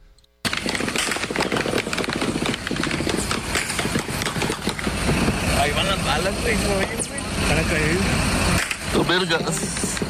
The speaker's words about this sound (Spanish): Así como lo escucha usted, con balazos amanecieron hoy los, la gente de Reynosa, Tamaulipas, allá en la frontera de México con Estados Unidos.